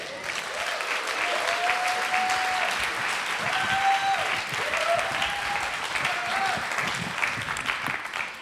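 Sustained applause from an audience, dense steady clapping filling the whole stretch, with a few faint tonal tones like soft sustained notes rising and falling beneath it.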